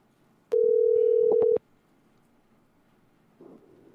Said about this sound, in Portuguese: A gente vai ligar, o Parrumpa não está conseguindo vir no link.